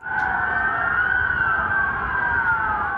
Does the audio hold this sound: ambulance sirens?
yes